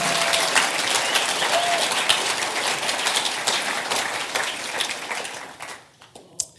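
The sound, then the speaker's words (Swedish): A church audience applauds Jesus together, a dense, steady wash of many hands clapping at full strength that thins out and fades near the end, leaving a few last scattered claps. “Nu får alla applådera. Come on, ge Jesus en stor applåd.”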